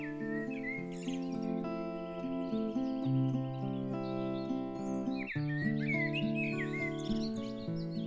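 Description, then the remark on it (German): Birds chirp and trill in short bursts at the start and again in the second half, on a sunny spring day by rapeseed fields, layered over gentle sustained music with steady held tones; no one speaks. “Du genießt ihre Wärme und den Duft nach Frühling, während du deine Augen schließt und dem Gesang der Vögel lauschst.”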